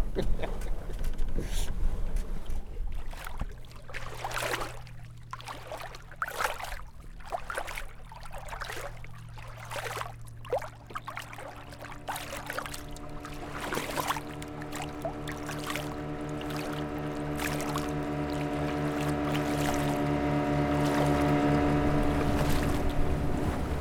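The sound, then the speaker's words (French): A boat engine hums steadily on open water, its drone growing louder and fuller toward the end as a vessel approaches, with wind and lapping water underneath. “qu'on ne doit pas couper la route des bateaux, surtout. Mais eux, ils n'en ont rien à branler.”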